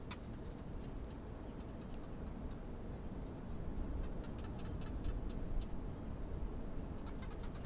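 Barking geckos call in scattered bursts of quick, dry clicks, fairly faint, over a steady low rush of wind blowing across an open desert landscape in the evening.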